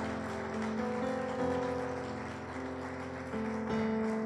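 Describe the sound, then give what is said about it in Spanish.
An audience gives the Lord another loud round of applause, a dense, even crackle of many hands clapping, with sustained keyboard chords holding underneath throughout. “Dele otro fuerte aplauso Señor y vamos a entrar.”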